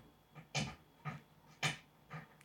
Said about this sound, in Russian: Кошка.